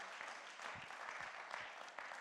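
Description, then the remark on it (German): An audience breaks into sustained applause for God, a dense wash of many hands clapping at once with steady loudness and scattered sharper claps standing out across the crowd noise. “Können wir Gott mal einen riesigen großen Applaus geben für das, was er für uns getan hat?”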